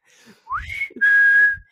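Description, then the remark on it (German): A man whistles two clear notes while riding through a tunnel: a quick rising swoop followed by a long, steady, piercing tone held for about half a second. Loud, with no talking. “Er hat gepfiffen.”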